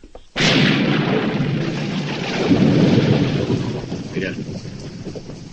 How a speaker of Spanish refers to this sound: ¿Sabes cómo le viene esta lluvia al campo?